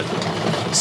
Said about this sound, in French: Excusez, c'est le bruit des gondoles.